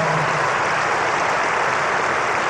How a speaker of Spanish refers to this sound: Él quería aplausos Vamos a darle un grande aplauso.